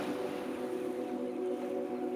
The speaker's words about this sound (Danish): Churchill stiger ombord på en lille båd, som sejler ham over til skibet, der ligger forude.